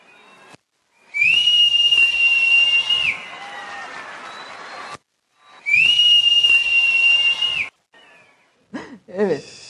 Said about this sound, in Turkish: öylesine coşkuyla sanki bana doğru uçacakmış gibi ellerini, kollarını ve vücutlarını öne doğru almışlar ve bu arada ıslık çalıyorlar. Sürekli ıslık çalıyorlar.